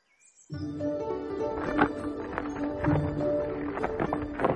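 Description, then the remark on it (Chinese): A little donkey being led home by a young miller walks, its hooves clopping in an uneven, unhurried rhythm of hollow knocks, over a steady bed of sustained tones that begins abruptly after a brief quiet start. “年轻的磨坊师傅牵着小毛驴往家走，心里别提多高兴了。”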